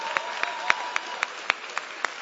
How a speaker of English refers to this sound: clap on that. Go on and clap. Go on.